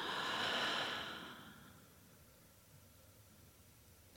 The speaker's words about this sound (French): Pour commencer, prenez une profonde inspiration par le nez en gonflant le ventre et la poitrine. Et soufflez par la bouche.